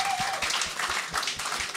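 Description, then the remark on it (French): An audience applauds Rick Preach, a dense wash of many hands clapping at once that holds an even, fairly loud level throughout the short burst, with no voices breaking through. “Bonne nuit d'applaudissements Rick Preach.”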